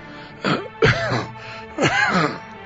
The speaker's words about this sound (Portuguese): Deu duas tossidas e começou a suar.